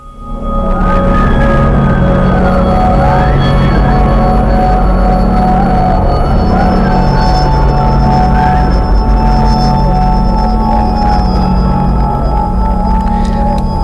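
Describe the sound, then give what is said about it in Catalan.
Church bells ring loudly and continuously, their overlapping metallic tones humming and blending into a sustained resonant wash with no pauses. No voices are heard. “aquests sons que, que han triat no? com a, com a exemples de com parlen les campanes”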